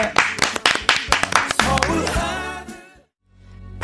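A quick run of sharp claps, about ten in a steady rhythm, fades into voices and tonal sound before a brief silence and a soft return.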